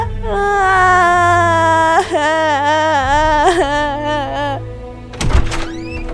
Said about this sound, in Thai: ทันใดนั้น ชาวบ้านก็ได้เปิดประตูยุ้งเข้ามา